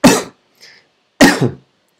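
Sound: coughing into the microphone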